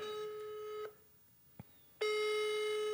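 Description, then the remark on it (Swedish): A telephone ringback tone from a call to the landline of Video Väst, a video store in Norrköping. A steady buzzy electronic tone cuts off, leaves a short silence broken by a faint click, then starts again. It is loud, with no talking. “Det går fram i alla fall.”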